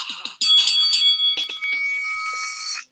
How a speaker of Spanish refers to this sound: Bueno, vamos a sonar la intro porque tú sabes que es que lo sonamos todos. Y que suene la campana.